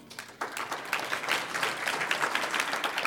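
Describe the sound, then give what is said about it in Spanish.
An audience breaks into applause for the Lord during a sermon, many hands clapping in a dense, steady patter that starts quietly and quickly swells to a full, sustained level for about three seconds, with no speech over it. “Un aplauso al Señor.”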